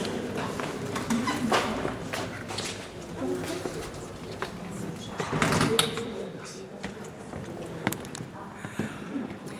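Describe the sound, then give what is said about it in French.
A small wooden door with glass panes creaks and rattles open as people enter for a recital on the Odyssey, amid scattered knocks and shuffling footsteps, with faint voices murmuring in the background. “Alors, on entre par une petite porte en bois vitrée.”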